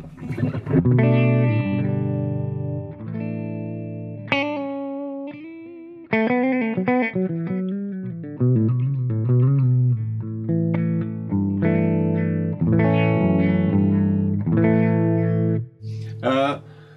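A distorted Les Paul electric guitar played through an amp with its bright switch turned off, giving a dark, thick tone: sustained chords and a melodic run of single notes, steady and loud throughout, with no voices.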